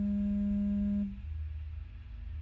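A phone rings in a shop as someone enters, once with a steady electronic buzzing tone that lasts about a second and cuts off abruptly, leaving only a low background rumble. No one speaks. The call is from a junior colleague.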